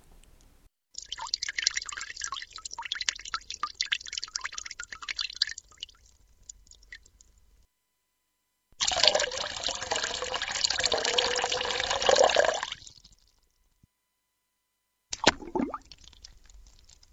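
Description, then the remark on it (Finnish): Three separate water sounds with gaps of silence between: a light, steady trickle, then a fuller gurgling pour, and finally a brief plop with a short splash. “Siinä oli, tämä oli mun henkilökohtainen niin Lirinä, Lorina ja Lumpsahdus tietysti.”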